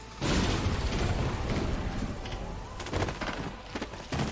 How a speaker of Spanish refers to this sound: Escuchaste la explosión, pero cuando llegas está todo destrozado.